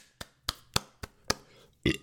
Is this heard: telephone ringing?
no